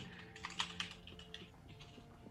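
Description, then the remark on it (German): Rapid clicking of keys on a computer keyboard, typing a winking smiley: a quick burst of several taps with a couple of sharper strikes, then lighter irregular tapping trailing off. “Ich mache einen Zwinker-Smiley dahinter.”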